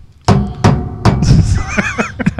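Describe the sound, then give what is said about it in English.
Several sharp knocks and clinks of hard objects being moved around on a table, fairly loud, followed by a brief glassy ringing and a few lighter taps. “not to be loud on the table and there I'm clinking stuff around.”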